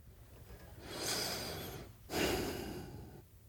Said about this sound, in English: I can't even like breathe through my nose because it's so loud.